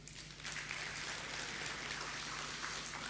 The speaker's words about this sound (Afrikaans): Ek is so dankbaar vir die vir die mense bo 60 in ons gemeente, want hulle is die mense wat ons gemeente diepte gee. Geef hulle lekker aan 'n klap toe.